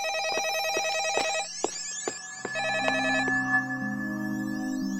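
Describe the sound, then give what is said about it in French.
A telephone rings in a museum with a warbling electronic trill in repeated bursts, overlapped by other steady beeping tones and sharp clicks, fairly loud, with no one talking. “Ah, téléphone. Mais ça vient d'où C'est pas courant dans un musée.”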